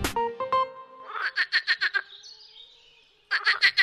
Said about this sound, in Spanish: En casi todos los países del mundo existen sapos y ranas. Sin embargo, su croar varía mucho. La gama de sonidos de estos anfibios es impresionante. Algunos los aman y otros los odian porque hacen tanto ruido.